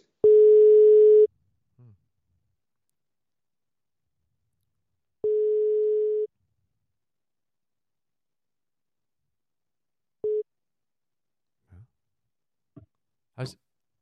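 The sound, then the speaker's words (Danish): A phone line's ringback tone sounds as an outgoing call is placed: two steady one-second hums a few seconds apart, then a third cut short, followed by a brief faint voice answering. “nu, jeg ringer lige til …, og prøver at se, om jeg kan få, øh, få fat i hende”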